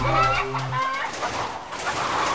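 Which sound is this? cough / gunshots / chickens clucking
chickens clucking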